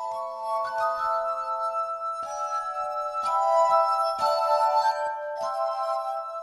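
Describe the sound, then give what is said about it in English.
Glass harp music from rubbed wine glasses, played by the Polish duo, sustained shimmering tones that overlap and shift between pitches in a slow, ethereal melody, steady and clear with no voices. “Ethereal Glass Harp Music from Poland”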